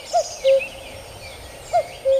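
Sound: cuckoo calling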